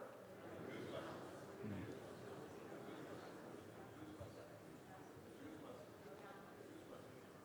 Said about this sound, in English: All right, that's enough. that is the sound of murmuring. Just this buzz.